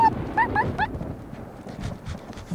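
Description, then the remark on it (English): A new puppy named Patches lets out a quick burst of four or five high, squeaky yips and whimpers while being played with, then quiets as soft shuffling and low background noise carry on. “I immediately started playing with my new puppy.”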